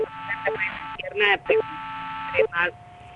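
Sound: garbled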